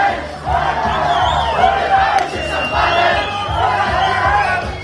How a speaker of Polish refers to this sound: Efektem była gorączka sobotniej nocy, masowa zabawa na Krupówkach. Zakopane!